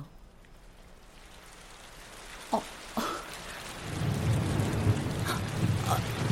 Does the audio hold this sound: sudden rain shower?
yes